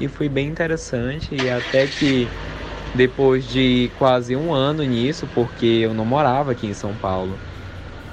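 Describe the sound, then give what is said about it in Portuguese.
A steady low rumble of car noise runs underneath a person talking continuously, sitting in the background like a vehicle engine or passing traffic. “Então ele veio, desculpa pelo barulho do carro, tá, gente?”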